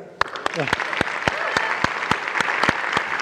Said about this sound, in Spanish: Recibamos con un fuerte aplauso, por favor, a Nayeli Rangel.